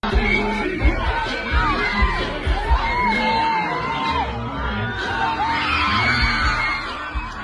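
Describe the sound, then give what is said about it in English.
A dense, loud concert crowd roars continuously, with overlapping shrieks, whoops and yells rising above a constant wash of chatter, and low thuds pulsing underneath throughout. “Just to give you some context of the chaos, this is audio from the video.”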